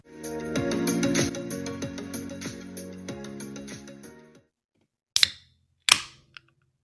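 Background music plays and cuts out, then an Olipop can of strawberry vanilla sparkling tonic is cracked open: two sharp metallic snaps with a brief fizzing hiss, followed by a faint small click.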